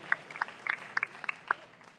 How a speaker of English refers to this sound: Let's give him a big round of applause for his amazing leadership as well. Thank you.